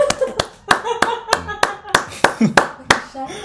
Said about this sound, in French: On, applaudit tous là